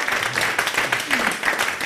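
A crowd applauds, a dense, steady patter of many hands clapping at an even loudness throughout, with a voice faintly audible beneath it.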